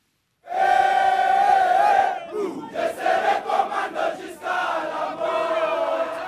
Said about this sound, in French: Ils sont une centaine armés de fusils en bois à apprendre les rudiments du garde à vous et à chanter les slogans de l'armée congolaise. Parmi ces jeunes recrues, certains viennent tout juste de s'engager,